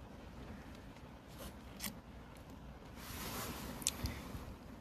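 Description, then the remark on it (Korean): Soft, steady rain patters outside, a diffuse continuous hiss with a few sharper drips now and then, at low volume with no voices. “근데 빗소리 너무 막 과하진 않죠.”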